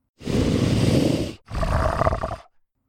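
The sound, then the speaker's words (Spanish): A deep, monstrous growl from a creature the size of an adult wolf but as fat as a bear sounds loud in two long bursts near a curtain, the first rumbling low and broad, the second rising into a rougher, snarling roar before cutting off. “Antes de que pudiera moverme, hubo otro gruñido.”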